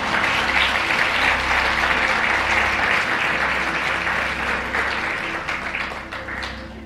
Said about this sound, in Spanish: Dele un aplauso fuerte al Rey de Gloria.